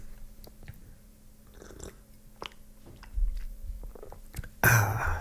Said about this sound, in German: Und äh, ich muss mal was trinken, Augenblick.